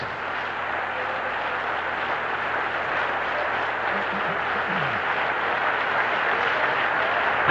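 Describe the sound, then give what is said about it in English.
A church audience claps in worship for several seconds, a dense, continuous wash of many hands with no clear individual beats, holding at an even loudness throughout. “Clap again and worship for just a moment.”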